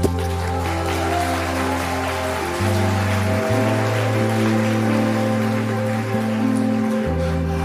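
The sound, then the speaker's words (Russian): An audience applauds steadily for several seconds, a dense crackling wash of clapping over sustained low musical chords that shift pitch a few times. “И больше никто не приходил а потом ему дайте огромный аплодисмент.”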